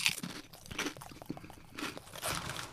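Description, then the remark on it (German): Crisp crunching of Funny Frisch chickpea chips, yoghurt-cucumber style, being chewed, with repeated dry crackling bites in an uneven rhythm and no talking. “Also die sind von Funny Frisch, Kichererbsen, Chips, Joghurt, Gurken-Style. 50% weniger Fett. Ich probiere jetzt mal ein.”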